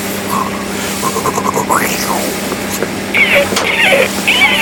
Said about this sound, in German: sondern ihr hört es vielleicht schon. Wir sind heute mal auf dem Boot unterwegs. Wir sind mitten auf der Hochsee.